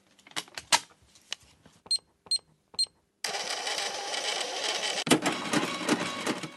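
Cash register sounds at a checkout: scattered clicks and key taps, three short beeps, then a loud, sustained mechanical whirring rattle with a sharp clunk near the end. No voices.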